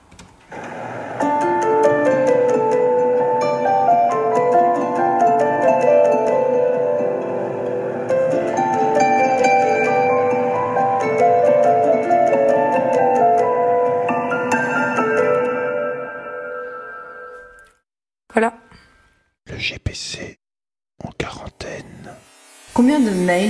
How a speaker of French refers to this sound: Et j'ai également composé euh, des, des prods un peu depuis le début. Et je peux vous faire écouter une petite, euh, un petit bout